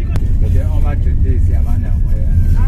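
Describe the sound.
Log trucks carrying huge rainforest trees drive past with a steady, loud low engine rumble that lasts throughout, while people talk over the noise.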